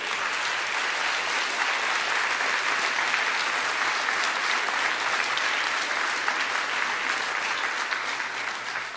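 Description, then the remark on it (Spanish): An audience applauds steadily for several seconds, a dense, sustained wash of clapping from many hands filling the room at an even, loud level, with no voices standing out. “Dáselo fuerte, dáselo fuerte.”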